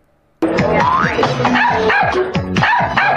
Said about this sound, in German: Pipi Max kann bellen. Pipi Max kann trinken. Er kann Pipi machen. Und er ist dein bester Freund.